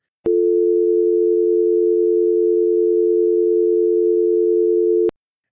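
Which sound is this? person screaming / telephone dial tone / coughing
telephone dial tone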